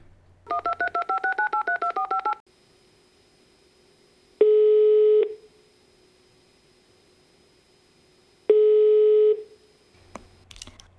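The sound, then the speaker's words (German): A quick run of touch-tone dialing beeps as a phone call is placed, then two long, steady ringing tones separated by a few seconds of quiet on the line, clear, with no voices. “Ja, na gut, dann, äh, gut, ich, ich wähl mal.”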